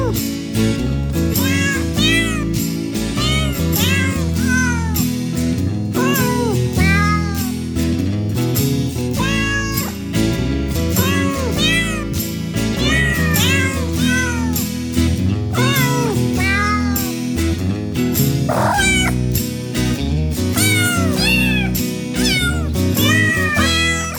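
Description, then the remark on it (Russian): Real cat meows, recorded from actual cats and mixed by a producer, are pitched and sequenced into a Christmas melody over a steady musical backing, the mewing notes rising and falling continuously and loudly for the whole stretch. “Это были реальные кошки, настоящие кошки.”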